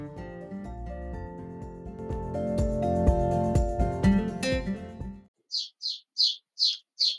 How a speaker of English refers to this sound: You may be able to hear small birdies shouting just outside my window, which is actually a lovely sound. They uh, they they seem to have a little nest just uh, above my office window